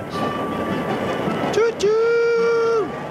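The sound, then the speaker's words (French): A train rolls along the rails with a steady rumble, then a long, loud whistle blast sounds for about a second before fading back into the running noise. “Peut-être pense-t-elle que les trains ont été faits pour voir paître les vaches.”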